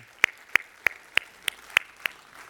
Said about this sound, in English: We can put our hands together and just applaud that.